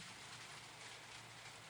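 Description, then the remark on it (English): Steady rain falling, a dense continuous hiss of drops with no breaks, even in loudness, with no voices over it. “That's well, still the I mean, rain.”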